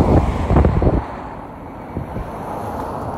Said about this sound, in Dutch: Ik moest even opletten op het verkeer.